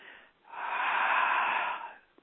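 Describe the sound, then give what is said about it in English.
A single long, breathy exhale during a guided breathing exercise, rising after a brief quiet pause, holding steady for over a second, then fading out. No one speaks. “breathing out and releasing the low energies that you no longer need.”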